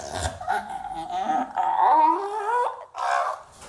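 An elephant seal pup vocalizes with drawn-out, wavering moans and whimpering cries, a few calls running together and breaking off, with no talking.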